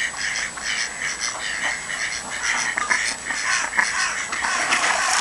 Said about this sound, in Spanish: Siempre hay algún pato malo que picotea a los demás y no los quiere dejar comer.